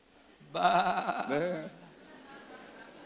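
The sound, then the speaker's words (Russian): A person's voice imitates a sheep's bleat, one loud wavering call of about a second with a quavering, harmonic tone, followed by quiet background noise. “Мы были все как овцы.”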